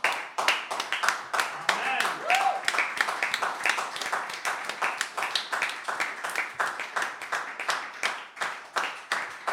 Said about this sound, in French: Est-ce que notre Dieu n'a pas droit vraiment à une ovation, une acclamation pour ce qu'il est